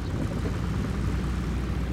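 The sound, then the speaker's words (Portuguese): A steady, low droning roar of three twin-engine Cessna Skymaster propeller planes flying overhead in formation, heading south toward Cuba a few kilometres above the Caribbean Sea in 1996, holds at an even level throughout, with no voices and no breaks in the engine hum. “Três bimotores Cessna Skymasters estão voando em formação, indo para o sul em direção a Cuba.”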